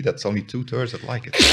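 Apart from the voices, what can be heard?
sneeze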